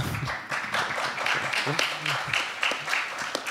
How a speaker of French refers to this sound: Ah bah, la team biodiversité sera contente des applaudissements, en tout cas. je vous remercie.